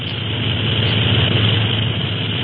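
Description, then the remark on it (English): A steady, loud drone of the Clipper airliner's engines in flight six hours out of San Francisco, above the fog, with a deep rumbling hum underneath that holds constant the whole time and never changes pitch, with no voices. “Then he and the boys board the plane, and now we find our friends comfortably seated in the Clipper, six hours out of San Francisco.”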